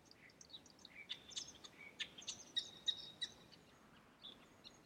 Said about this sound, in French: C'est le calme, le bruit des oiseaux, pouvoir se promener parmi toutes ces plantes.